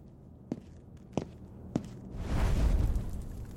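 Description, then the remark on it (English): Three sharp igniter clicks spaced about half a second apart, then a sudden loud whoosh as the fireplace catches and a low, rushing roar that gradually fades. No voices. “All right, I think uh, I think I'll start up the fireplace.”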